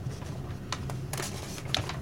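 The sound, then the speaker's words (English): Crisp paper rustling in a few short, irregular bursts, like someone fumbling with a page that won't quite turn, over a low steady background hum. “the paper would not turn.”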